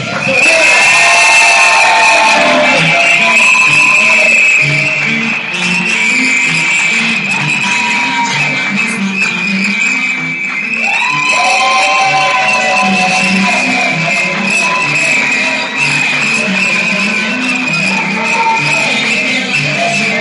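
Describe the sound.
Loud, sustained crowd applause and cheering lasting about twenty seconds, a dense wash of clapping mixed with shouting voices and a steady high-pitched whistle-like tone running throughout.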